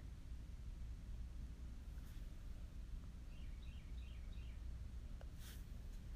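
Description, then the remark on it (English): Faint birds sing outside, a short run of quick repeated chirps rising over a steady low outdoor rumble and hiss, with no one talking. “As the good news birds are singing outside, I ask the Most High to keep you and I in perfect shalom today as it is a Shabbat and we can rest in His shalom.”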